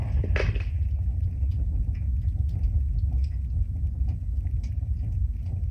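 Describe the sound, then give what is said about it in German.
Faint, irregular crackling ticks scatter across a heavy, constant low rumble, with one slightly louder burst near the start; no one speaks. “Es knistert.”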